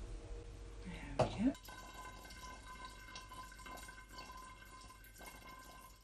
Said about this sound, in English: Actually, just so it goes in the bottle, I'm thinking of just adding the food colouring to the brandy and then pouring it in. It won't just stick to the sides of the bottle then, will it? So two drops of food colouring going in.